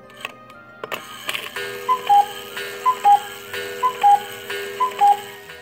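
A clock ticks a few times, then a bright two-note chime repeats steadily, four even strikes about a second apart, clear with no voices, the clock sounding at exactly six o'clock.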